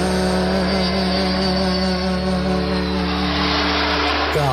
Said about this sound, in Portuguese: Que pena já não pode ouvir, já vai saindo o avião.